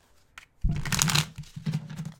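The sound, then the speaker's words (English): Tarot cards being shuffled in two quick, crisp riffling bursts, the first longer and louder, followed by a shorter second pass, with no talking. “Oh, cards are flying, but not revealing themselves. We're going to just stick those back in.”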